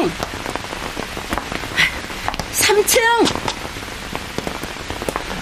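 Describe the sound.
Steady rain patters down throughout in a dense, even hiss, while a voice briefly calls out over it partway through.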